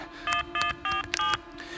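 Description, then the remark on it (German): Four quick electronic mobile phone keypad tones beep in succession as someone dials a call, each a short steady dual-pitched bleep with brief gaps between them, over a faint low hum. “Ich habe ja ein Handy. Ich rufe ihn an.”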